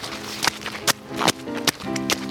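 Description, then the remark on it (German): Steady footsteps squelch through mud, about five evenly spaced steps in a walking rhythm, with a faint humming, voice-like tone running underneath. “Hier ist eigentlich nur Matsch. Hört ihr?”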